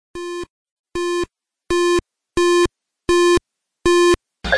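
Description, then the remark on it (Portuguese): Opening sound of the home computer demo Linux Expert: six loud, evenly spaced buzzy electronic beeps at one steady pitch, followed by a brief burst of harsher sound at the very end. “A gente sempre lembra do Linux Expert, que, embora não tivesse a categoria, é um demo, é uma demonstração, é o que vocês ouvem na abertura de todo episódio do Reto Computaria, é o início do Linux Expert”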